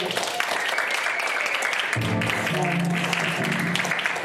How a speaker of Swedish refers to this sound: Ge henne en varm applåd!